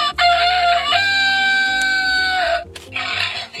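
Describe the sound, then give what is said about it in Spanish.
A loud, tinny recorded farm animal call, a rooster-style crow played from a toy sound button in a children's book of farm animals that make sounds, held for about two seconds and followed by a brief noisy burst. “porque tiene un niño de 15 meses y entre animales de granja que emiten sonidos”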